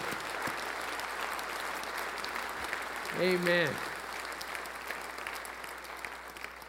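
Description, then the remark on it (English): A large audience at Christ the King Church applauds steadily throughout after being asked to make some noise because Jesus saves, a dense, sustained wash of clapping, with a single voice calling out briefly partway through. “If Jesus saves, let's make some noise because it's true and because it's good.”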